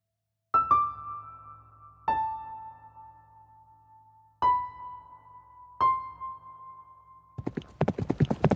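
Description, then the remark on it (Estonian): Four ringing metallic tones, each struck and slowly fading, are followed at the very end by a quick burst of horse hooves galloping, two ridden horses, Säru and Rafael, one following the other, a rapid series of sharp beats. “Anna lasi särul ees galoppi ning Rafael järgnes Anna juuksed lehvisid tuules ja tema jalad pigistasid tugevalt vastu hobuse külgi.”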